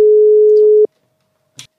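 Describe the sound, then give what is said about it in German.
A steady, loud telephone line tone, as a guest from the Hellhound Foundation is brought onto the line, holds one mid pitch for most of a second, then cuts off, followed by silence and a brief soft click or rustle. “Dann würde ich sagen, holen wir Vanessa von der Hellhound Foundation in die Leitung”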